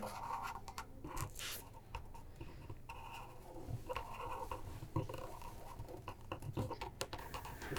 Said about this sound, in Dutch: Ik onderteken hem ook even.